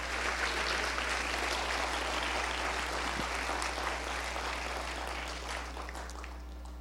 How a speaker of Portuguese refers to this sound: Diga eu creio e aplauda o Senhor, e diga Deus eu creio, Deus eu creio nessa palavra.